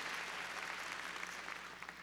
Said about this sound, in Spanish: A ver, démosle palmas fuertes al Señor.